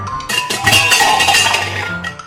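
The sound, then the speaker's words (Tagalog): A cat knocks over a coffee pot on the stove: a sudden loud metallic knock and clatter as the pot tips over and its contents spill, followed by dishes and utensils clinking and rattling together for a couple of seconds. “Hinimod ng pusa ang mga pinggan, tumalon sa kalan, dinilaan ang palayok at kawali nasanggi ang kapitera.”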